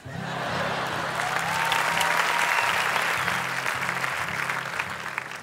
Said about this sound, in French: Merci d'applaudir la médiocrité de ma vie.